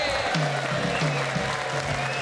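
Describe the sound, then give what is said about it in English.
A studio crowd applauds and cheers as a band and its leader are introduced, a dense, steady wash of clapping with a few voices calling out, loud and continuous for the whole brief moment. “There's that, you always used to have that crowd that would go, Joey!”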